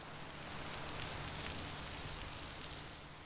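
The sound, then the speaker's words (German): Heavy rain pours down steadily in Nueva Bellavista, a flooded village in the Chocó region, a dense, continuous hiss of drops striking surfaces, with no voices and no letup in intensity. “Nueva Bellavista steht unter Wasser. Die Chocó-Region ist die regenreichste auf dem ganzen Kontinent.”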